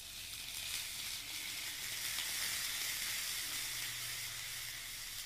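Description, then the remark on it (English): A steak sizzles steadily in a hot pan, a dense, crackling hiss that holds at an even level for several seconds with a faint low hum beneath and no voices. “Hey, have you ever been sitting at home and thinking, God, I would really like a super sensational sizzling steak?”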